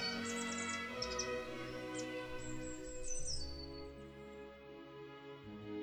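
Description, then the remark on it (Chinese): Several quick, high-pitched chirps from a small bird startled while building its nest in a locust bush at the edge of a small wood; it flaps its brownish-yellow wings and flies off. Steady humming background, no one talking. “当他走过的时候，那只小鸟吓得鸣叫一声，拍打着褐黄色的翅膀。”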